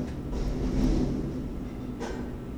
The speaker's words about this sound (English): Oh, hear that garbage truck banging away out there?